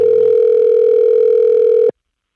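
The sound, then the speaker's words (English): A phone line ringing as a call is placed to a participant: one steady, loud electronic ring tone holds for about two seconds and then cuts off abruptly, with no voices. “So uh, let's call our number three. Let's get our number three on the line.”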